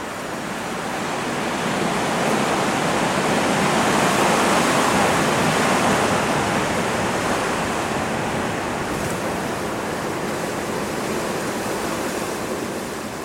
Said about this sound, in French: Quand ça souffle, ça souffle. Au plan d'Aou, il y a tellement de vent que certains enjoliveurs semblent des animaux marins qui ont été soufflés jusque-là.